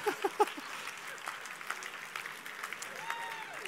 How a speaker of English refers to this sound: All right, you guys give him a round of applause.